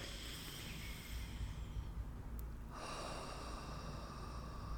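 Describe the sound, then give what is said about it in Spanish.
A long, deep breath drawn in through the nose, a steady airy rush lasting about three to four seconds, clear with no talking, taken as a calming breathing exercise. “Respiraciones largas y profundas, preferiblemente te diría de como 3 a 4 segundos cada respiración.”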